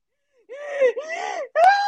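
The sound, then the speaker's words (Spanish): A voice imitates a woman hyperventilating from crying: three strained, whimpering gasps in quick succession, the last one sharper and higher-pitched, with no words spoken. “Y la otra hiperventilándose del llanto y la otra.”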